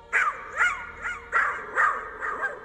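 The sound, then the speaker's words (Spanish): A dog barks in a steady series of six sharp barks, evenly spaced about half a second apart, with no voices present. It is the ghost of Dolly, the Whaley family's terrier, running toward the dining room of the house. “El fantasma de un perro que corre hacia el comedor de la casa.”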